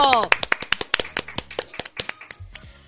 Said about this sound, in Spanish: gracias, gracias. Un aplauso.